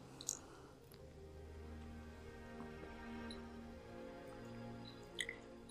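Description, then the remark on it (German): Someone takes a quiet sip of water, with a faint wet click at the start and another soft gulp near the end, over a low steady hum and no talking. “Und bevor ich darüber erzähle, trinke ich erstmal einen Schluck Wasser.”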